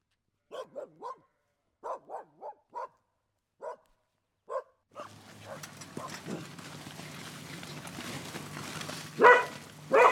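A black Norwegian elkhound barks in a string of short, sharp yaps with brief pauses, then keeps barking intermittently under a steady wash of rustling outdoor noise.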